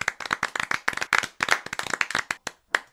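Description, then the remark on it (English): A burst of enthusiastic applause from a small group, rapid overlapping claps at a steady loud level, tapering off into a few scattered final claps. “It's an anniversary episode and it demands to be celebrated. So let's hear it, folks.”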